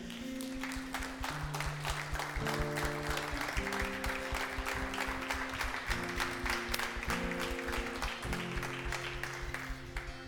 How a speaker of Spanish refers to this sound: Quiero que te pongas de pie en esta noche, le des un buen aplauso a Él.